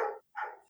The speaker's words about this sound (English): you can hear my dog in the background probably